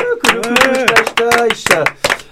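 Hands clap in a quick, uneven burst of applause, sharp taps overlapping with loud voiced cheering throughout the short stretch.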